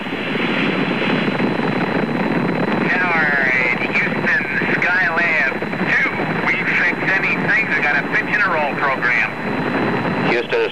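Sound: rocket engines roaring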